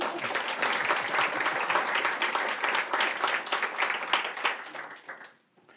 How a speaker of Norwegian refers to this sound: Ja, applaus.